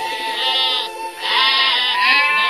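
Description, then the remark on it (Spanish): Sheep bleating loudly, two long wavering calls with a brief dip between them, no talking. “Cuenta la leyenda a fines de 1700, en la comarca de Cora, ubicado al sudoeste de lo que actualmente es el municipio de Quillacollo, vivía una familia campesina que se dedicaba a la crianza de ovejas.”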